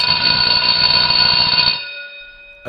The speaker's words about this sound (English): totally, totally forgot about that bell, but I guess that's a common thread, right? In September, you forgot about the bell all summer, and suddenly it's here in the fall.